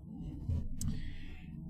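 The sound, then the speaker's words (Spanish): A low, steady rumble of airplanes flying overhead at nine at night, muffled, with a broad droning hum that holds fairly constant throughout and no voices present. “Yo no sé si escuchan los aviones arriba.”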